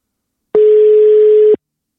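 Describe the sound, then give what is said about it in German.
A single steady telephone tone sounds for about one second while placing a phone call, loud, starting and stopping abruptly against silence, like a ringback or call tone during dialing. “Ich rufe mal an.”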